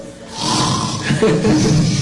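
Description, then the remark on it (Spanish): A voice imitates loud snoring, with a harsh, raspy, throaty rumble that swells and holds for about two seconds, forceful with no other talk. “Claro que sí, roncando estaba.”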